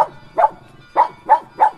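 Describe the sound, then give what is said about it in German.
A small pug-mix dog barks four times in fairly quick succession, with short, mid-pitched yaps and brief pauses between them. No one speaks. “Dieser Mobsmix namens Lilly ist im Interview sehr gesprächig.”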